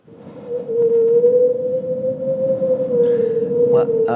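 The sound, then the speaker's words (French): A voice imitates wind whistling through a small hole in a window, holding one steady, slightly wavering hollow tone for about four seconds, fairly loud, ending with breathy puffs. “Tu vois, quand, sur la fenêtre, il y a un petit trou qui fait ça.”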